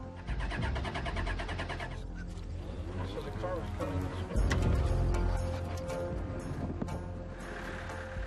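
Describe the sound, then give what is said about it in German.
A car engine with a clogged fuel line struggles to start, with a continuous low rumble that surges louder about halfway through before settling back down. Voices can be heard talking over it. “Unser Auto macht Probleme. Die Benzinleitung ist verstopft.”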